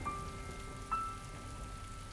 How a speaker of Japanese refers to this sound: 私は駅前のコンビニの前にいたビニール傘を買おうか雨が止むのを待とうか思案していた